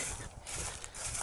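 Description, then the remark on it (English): Dry leaves crunch and crackle under feet in a steady rhythm of footsteps during a morning walk, a bright rustling texture with no voices. “Yeah, you might hear the noise in the background, the leaves crackling under my feet.”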